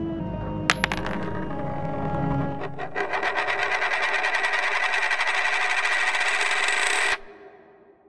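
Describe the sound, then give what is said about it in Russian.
Chervonets coins drop with a sharp metallic ring, then a rapid, steady rattle of the coins spinning and rolling across a bedroom floor builds for several seconds before stopping abruptly. “Повисшие в воздухе вопросы растворились как дым, когда за дверью послышался звон монет”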